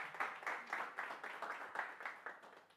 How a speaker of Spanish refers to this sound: Un fuerte, para un fuerte aplauso para nuestro Señor vamos a orar.